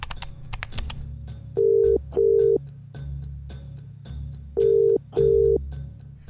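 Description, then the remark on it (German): A woman dials her sister's number on a telephone with a few quick clicks, then a ringback tone sounds in two paired double-rings, steady and clear, with no answer and a faint ticking underneath. “Hastig nimmt sie den Wasserkocher vom Herd, greift zum Telefon und wählt die Rufnummer ihrer Schwester.”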